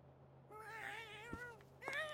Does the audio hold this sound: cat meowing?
yes